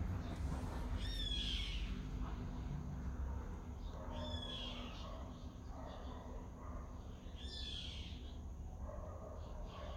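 Several birds call outdoors in short, chirping bursts that recur every few seconds over a steady low rumble of background noise.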